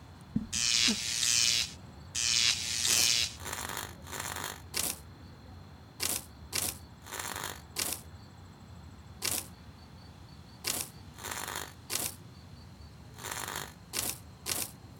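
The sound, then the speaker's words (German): Irregular bursts of scratching and knocking, a couple of longer rasping scrapes at first, then a scattered run of short raps and scrapes with brief quiet gaps between them. “Das klingt fast wie ein, ein Klopfen und Kratzen.”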